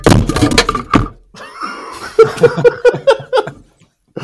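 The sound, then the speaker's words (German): A microphone topples over with a burst of heavy thumps and rumbling clatter, followed by a pause and then a run of rhythmic, bursting laughter. “Das war nur das Mikrofon, was umgefallen ist.”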